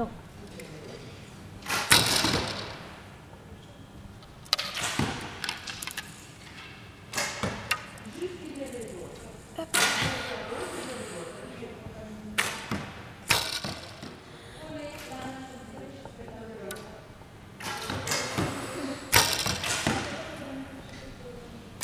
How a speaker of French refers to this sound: On pose la flèche on vise, on prend trois doigts qu'on place sous la flèche, on tend et la flèche doit arriver au niveau de l'œil pour viser. là, c'est ce que je fais.